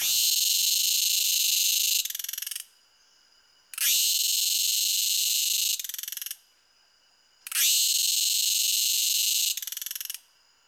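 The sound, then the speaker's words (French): A cicada sings in three loud, harsh buzzing bursts of about two and a half seconds each, every phrase shifting in tone at its end before a short silence. The sound, called cymbalisation, is made by two small plates called cymbals at the start of its abdomen. No one speaks. “Leur son est, produit par deux petites plaquettes qui se trouvent au début de l'abdomen, auxquelles on a donné le nom de cymbales.”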